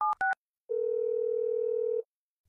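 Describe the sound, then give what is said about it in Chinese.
A father dials his son-in-law's phone: two quick, loud keypad beeps in different dual-tone pitches, then a pause, and a steady mid-pitched ringing tone held for over a second before cutting off. No one speaks. “稍稍平静下来的小杰父亲拨通了女婿的电话”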